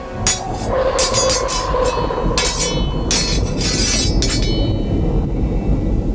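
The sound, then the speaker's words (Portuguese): Repeated loud metallic clangs and clinks ring out at uneven intervals from outside a barn, each metal strike accompanied by thunder, over a constant deep, heavy rumble, with no voices present. “Em cada batida de metal, você escuta um barulho de trovão.”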